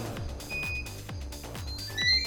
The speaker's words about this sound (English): Timer set. Brilliant. How, how long are you putting on the timer? Well, we have to wait until we're through the gate. So it's actually on a subspace trigger so we can fire it whenever.